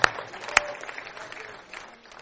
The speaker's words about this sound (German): Du kannst ruhig klatschen.